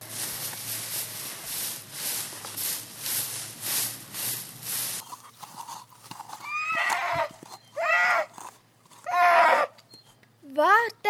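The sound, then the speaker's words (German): Quick, steady horse hoofbeats clatter for several seconds, then stop as the horse halts, followed by a series of loud, shrill horse whinnies in short bursts, rising and falling in pitch. “Ich glaube, das Ross hat Angst. Schau, es bleibt stehen.”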